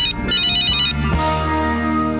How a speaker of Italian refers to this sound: Nel mentre arriva una telefonata al cellulare. Utente sconosciuto.